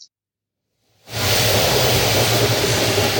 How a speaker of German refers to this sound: Wir sind live aus dem Zug Hyderabad Richtung Hampi. Haben soeben unsere erste lange Zugfahrt hier begonnen. Klasse? Sleeper.